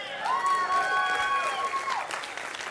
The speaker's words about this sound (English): Yeah, cheer for him, guys.